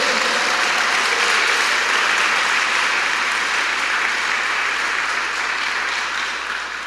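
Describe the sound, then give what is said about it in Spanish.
A crowd gives the Lord a big round of applause, clapping steadily and loudly for several seconds, a dense wash of many hands clapping together that tapers slightly toward the end, with no speech over it. “Le damos un fuerte aplauso al Señor por eso.”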